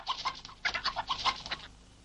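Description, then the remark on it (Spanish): Hens cluck in a quick, busy run of short, clipped notes, about a dozen in under two seconds, fairly quiet, then fade out with no one speaking. “Hay varias gallinas, frutas y verduras.”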